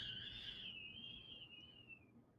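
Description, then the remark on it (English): Strong wind in Boulder whistles in a thin, high, steady tone that slowly sinks in pitch and fades over about two seconds, over a low, rough rumble of gusting air. Fairly quiet, no voices. “It's like super windy in Boulder right now, and it just made this like whistling noise right after I said that.”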